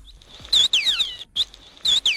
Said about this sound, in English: a killer whale, otherwise known as an orca. I knew that.